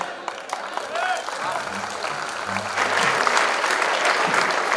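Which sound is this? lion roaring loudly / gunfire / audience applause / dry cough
audience applause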